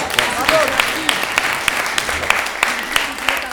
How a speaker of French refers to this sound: Eh bien, merci. On peut l'applaudir. Merci.